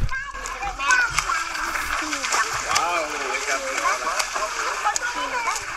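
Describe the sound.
Water splashes and churns steadily as a child dives under the surface, while children's excited voices chatter and call out over it throughout.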